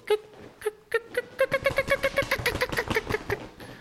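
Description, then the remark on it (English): A turkey fly-down cackle made by a turkey hunter, who flaps a turkey wing at the same time: sharp clucking notes start sparse, then speed up into a rapid, loud run, with rough wing flapping whooshing underneath for the last couple of seconds. “I'll do my tree yelps, you know, and once it gets that time where birds are flying down or birds should be flying down, I'll hit them with that fly down cackle and then I'll take the wing at the same time, or you can use your hat.”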